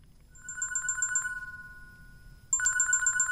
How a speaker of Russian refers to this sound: Как раз в этот момент зазвонил телефон.